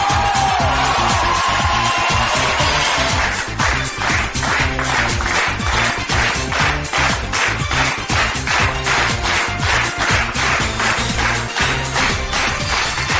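A loud radio show audience cheers and whoops, welcoming the host of the show 海洋现场秀 (Haiyang Live Show), then breaks into steady rhythmic clapping in time, roughly two claps per second, with a brief tone at the start and no talking.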